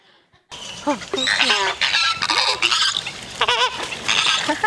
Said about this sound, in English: The first question that we're going to answer in this series is what sound does a flamingo make? Please turn your attention to the screen.